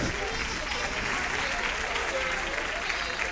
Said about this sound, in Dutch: ah, applaus. Applaus.